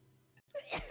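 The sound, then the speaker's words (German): A short, raspy cough or two after a brief silence, muffled, from a sick, weakened woman in a small room next door. “Sie werden von einem Husten aus der kleinen Kammer nebenan unterbrochen.”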